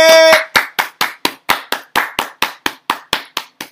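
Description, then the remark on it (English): A steady run of about fifteen sharp hand claps at a brisk, even tempo, loud, following a brief tonal note at the start. “we can clap now, but they're gonna hate us later.”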